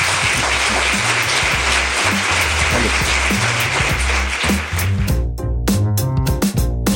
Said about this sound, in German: Vielen Dank, dass du da warst. Einen großen Applaus für Andreas Steinhöfel.